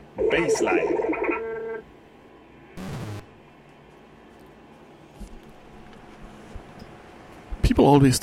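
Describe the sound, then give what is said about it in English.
A warbling synthesizer alarm, heard from outside a window, sounds in a loud burst, then stops; a short noisy blip follows, and another brief electronic warble returns at the end over faint outdoor background. “Synthi alarm 2 from outside window,”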